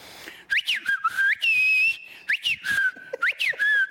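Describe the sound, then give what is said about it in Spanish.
Several catcall whistles from cars, each a quick rising swoop followed by a falling one, loud, with brief pauses between phrases and no talking. “y me hacen cosas así, de los coches me chiflan.”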